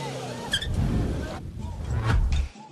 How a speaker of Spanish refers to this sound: En medio de las manifestaciones, un grupo de personas vandalizaron y robaron un auto policial. Incluso condujeron el vehículo por un tramo de la vía bloqueada.